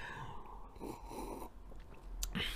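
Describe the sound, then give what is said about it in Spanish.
Someone takes a couple of quick, quiet sips of coffee, with soft slurping and breathy mouth noises separated by a short pause. No one speaks. “Eh, doy un traguito a mi café antes de platicarles esta historia porque está buena, está buena.”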